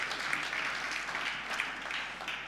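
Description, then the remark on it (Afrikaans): An audience claps together to welcome people, a steady, dense wash of applause that holds at an even level for a couple of seconds, with no voices standing out over it. “Geef hulle 'n lekker hande klap toe.”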